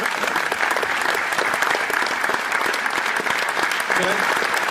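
A room full of people claps steadily for several seconds, a dense, even wash of hand claps that stays loud from start to finish.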